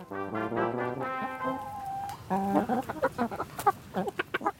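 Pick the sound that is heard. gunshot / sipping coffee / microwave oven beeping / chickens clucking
chickens clucking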